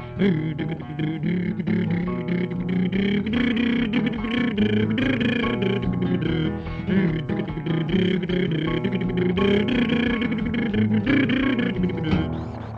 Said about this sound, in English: What a funny noise it's making. It's talking to us. All engines talk. What's it saying?